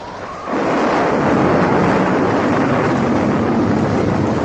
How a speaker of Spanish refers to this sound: Pero, de repente, un viento huracanado, frío como las losas de las sepulturas. Y una lluvia cruel con gotas como puntas de afilados cuchillos.